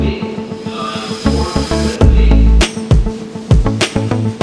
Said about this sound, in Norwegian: Dørene lukkes. Da er vi igjen på T-banen, eller?